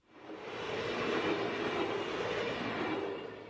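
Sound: train passing on rails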